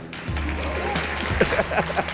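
At the end of a talk, an audience breaks into steady, dense applause that starts abruptly and holds at an even level, with a few voices faintly audible underneath the clapping.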